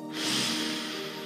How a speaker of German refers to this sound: Die Bauchdecke hebt sich und wir atmen nochmal aus. Der Bauch wird ganz flach und wir atmen nochmal ein.